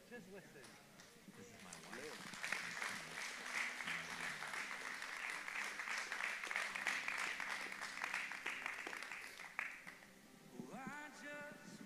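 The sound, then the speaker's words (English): An audience breaks into sustained, dense hand clapping that swells and holds for several seconds, then fades as a voice resumes speaking; faint talk is also audible at the start. “That was a good hand clap.”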